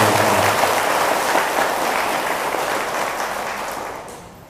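A large audience of Buddhist lay followers claps steadily in a dense, continuous burst of applause that stays loud throughout and only begins to thin out at the very end.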